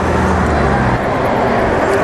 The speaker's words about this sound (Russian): О, автобус приехал. Да, действительно, вчера приехал автобус.